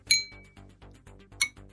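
A cup is tapped: a bright, ringing clink from an intact cup sustains briefly, followed by several duller, dead-sounding knocks on a cracked cup in a steady rhythm, with another clear ringing tap near the end. Fairly quiet.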